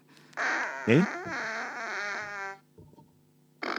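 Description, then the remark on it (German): A loud, drawn-out fart sound effect from a children's friendship book, buzzy and sputtering with a wobbling pitch for about two seconds, followed by a brief pause and a short burst of noise at the end. “Ich muss dafür einen Sound kurz abspielen. Ähm, ja. Nicht, nicht erschrecken, bitte.”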